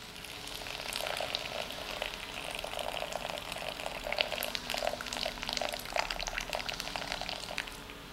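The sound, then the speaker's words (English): Just-boiled water is poured steadily onto chocolate for several seconds, a continuous splashy hiss with scattered bubbling crackles, and no one speaks. “Okay, I'm adding in the hot water.”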